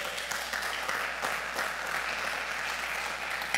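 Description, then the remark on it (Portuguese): An audience applauds the Lord in a steady, dense wash of clapping that holds at an even level for several seconds, with no voices standing out above it. “Quem está aqui, diga amém, dá um aplauso ao Senhor aí, bem forte.”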